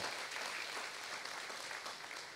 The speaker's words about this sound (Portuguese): Glória a Deus. Aplauda o Senhor sim, ele é digno. Aleluia.